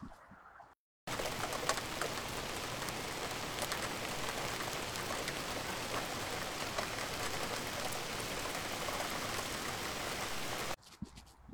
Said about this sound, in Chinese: 今天的雨太绵了，大家听不到雨的声音。不过我可以等一下放一段雨的声音，让大家感受一下。